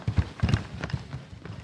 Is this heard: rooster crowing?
no